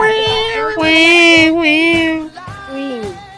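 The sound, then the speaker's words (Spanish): A cat cries with long, drawn-out meows, several loud wailing calls in close succession with pitch that bends up and down, plus faint low thumps underneath. “Yo escucho ahí, hay un bebé o algo ahí. Hay, un gato llorando.”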